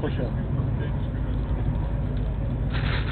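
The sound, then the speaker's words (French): Steady, deep rumble from inside a moving Swedish train travelling between Malmö and Stockholm, continuous and even throughout, with a faint hiss of motion layered over the low drone and a brief rise in rattle near the end. “En gros, c'est les trains suédois.”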